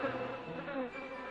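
A housefly buzzes steadily for a moment, a thin droning hum with a slight wavering in pitch as it flies off, fairly quiet and with no voices.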